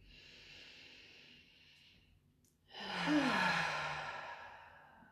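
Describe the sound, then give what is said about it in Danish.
A slow, airy deep inhale followed after a brief pause by a louder, fuller exhale with a soft voiced sigh, with no talking. “Og øhm, lad os starte med at tage et par dybe vejrtrækninger sammen.”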